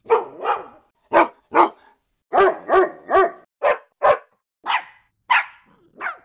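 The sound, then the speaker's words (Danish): A dog barks repeatedly, about a dozen sharp, loud barks in uneven pairs and singles with short pauses between, with no other sounds. “Men nogle gange kommer der jo også en lyd ud af dem. Det gør der, når de gør”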